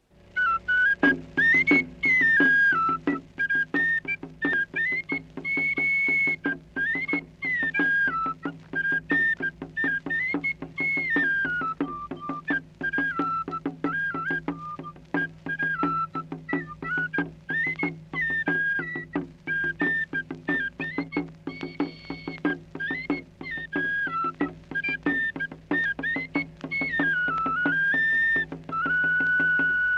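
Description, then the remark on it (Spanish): A shrill whistle or flute plays a looping, ornamented melody over a steady, insistent drum beat that runs continuously throughout: Los Tecuanes, the tiger dance of Hacienda Raboso, Puebla State, Mexico, a traditional indigenous dance tune with no voices. “Los Tecuanes, la danza del tigre de la Hacienda Raboso, Estado de Puebla.”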